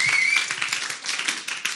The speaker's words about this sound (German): Deswegen gebt denen doch mal einen fetten Applaus, oder? Weil so viel, so viel wert und so ein Privileg.